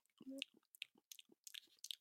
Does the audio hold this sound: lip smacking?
yes